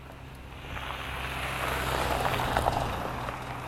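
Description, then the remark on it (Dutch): Steady road traffic noise with a low engine rumble that swells as a car rushes past, then holds at a broad whooshing roar. No voices. “Even alle auto's voorbij laten gaan.”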